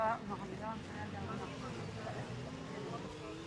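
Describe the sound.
A steady, droning rumble of motorcycle engines at the Pingüinos motorcycle gathering in Valladolid fills the background at a moderate, even level, with indistinct voices blended into the noise.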